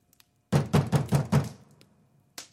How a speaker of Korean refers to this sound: 계단과 복도를 지나며 느리고 무겁게 올린 발걸음 소리가 바로 문 밖에서 멈추었다. 이어서 크고 당찬 노크 소리가 울렸다.